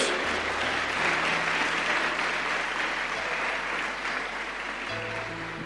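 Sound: audience applauding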